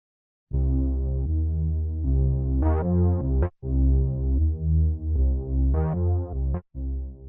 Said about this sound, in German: Genau, und da würde ich sagen, ist vielleicht ein Ton, der tief ist, also so so brummt wie ein Bär und vielleicht so stapft wie ein Bär, dass wir da was hernehmen.